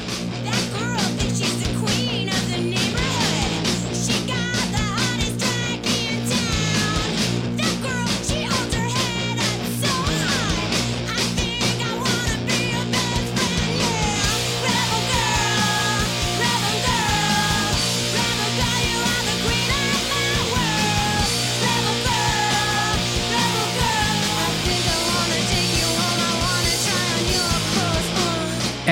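A loud, dense feminist punk rock track from the Riot Girl movement, with driving distorted guitars, pounding drums and raw, shouted vocals pushing over the mix, steady and full throughout.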